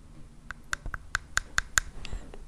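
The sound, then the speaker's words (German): A small piece of amber tapped against teeth as a tooth test: about seven sharp, hard clicks in a quick, steady rhythm, distinct, then a couple of fainter taps trailing off, with no talking. “Jetzt mal, dass ihr vielleicht hört, ich mache mal den Zahntest.”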